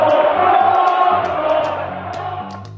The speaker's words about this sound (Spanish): Con el grito de ¡Mono, mono! Miles de aficionados del Valencia atacaron a Vinicius Jr., el delantero brasileño estrella del Madrid.